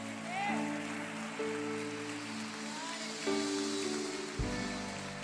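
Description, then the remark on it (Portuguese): An audience applauds the Lord in a steady, dense wash of clapping, with sustained keyboard chords changing underneath and a few scattered voices calling out over the applause. “Aplauda o Senhor, meus irmãos.”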